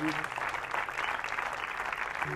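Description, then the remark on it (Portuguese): An audience claps together for Jesus after a prayer, a dense, steady, loud burst of applause filling the whole moment with no voices standing out. “Salve de palmas para Jesus que faz tanto nas nossas”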